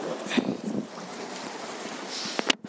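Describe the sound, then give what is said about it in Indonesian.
Strong waves wash against a beach of very large rocks in a steady rush of surf, with wind buffeting the microphone and a couple of sharper splashes near the end. “ombaknya men kenceng banget kayaknya gue harus bawa pakaian double kalau ke pantai aduh gue sekarang nih ada di batu-batuan gitu jadi di pantai ini ada batu-batuan yang gede-gede banget”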